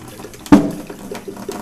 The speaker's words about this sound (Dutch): Ik ga even heet kokend water aanzetten. En de wasbak gaat uitzetten door de hitte. Bam, hoor je dat.